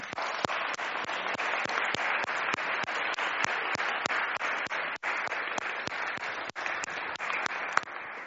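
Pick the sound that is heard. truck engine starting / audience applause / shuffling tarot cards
audience applause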